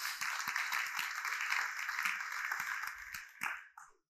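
A church audience applauds for the Lord during a sermon, a dense, steady wash of many hands clapping for about three and a half seconds before it tapers off quickly at the end.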